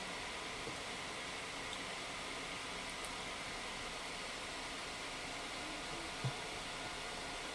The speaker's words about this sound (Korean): 네, 선풍기 튼 거예요. 공기청정기 겸 선풍기.